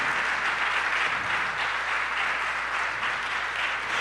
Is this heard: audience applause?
yes